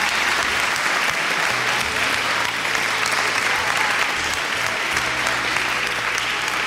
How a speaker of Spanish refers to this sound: Oye, un aplauso para Lorena.